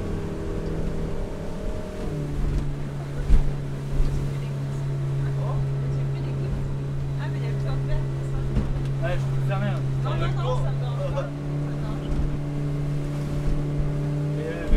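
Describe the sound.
A boat motors across open water from Pornic toward Noirmoutier in the afternoon, its engine a steady low drone beneath rushing wind and splashing waves, with faint voices in the background.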